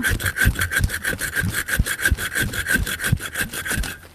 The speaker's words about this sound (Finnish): Mä lasken tämän mikrofonin tähän maahan ja sahaan kaksin käsin.